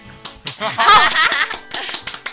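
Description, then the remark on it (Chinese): A short burst of hand clapping from a few people, applauding a couple's news that they have registered their marriage, quick irregular claps rising to a louder flurry in the middle, with some voices and light laughter mixed in. “鼓掌。”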